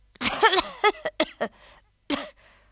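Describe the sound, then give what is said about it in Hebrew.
A boy with a runny nose and a fever coughs in a quick run of short, raspy bursts, then lets out one more cough after a brief pause. “נכון, אתה גם משתעל.”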